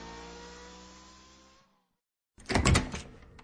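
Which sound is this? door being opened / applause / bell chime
door being opened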